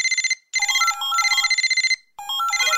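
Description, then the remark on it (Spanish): A telephone rings with a bright electronic trill, warbling in repeated bursts separated by brief pauses, fairly loud, with no voices. “Los teléfonos empiezan a dejar de sonar.”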